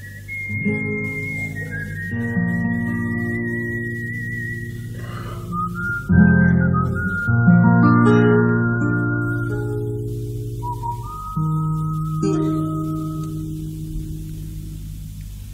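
A gentle folk tune played on flute, its clear high melody gliding through sustained notes over a steady, warm accompaniment, purely instrumental with no voices.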